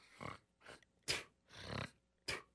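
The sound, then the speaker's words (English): A voice imitates a man in a gym shower area loudly hawking up phlegm, five harsh, throaty bursts of hacking and clearing in an uneven rhythm, prominent with no talking. “He is hawking up some major loogies, like super loud and clearly hacking”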